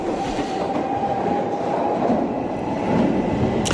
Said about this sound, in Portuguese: Desta vez, no metro. Temos dois autores da nossa equipa, a ler livros do Gustavo Santos, em pontos distintos da carruagem, completamente cheia.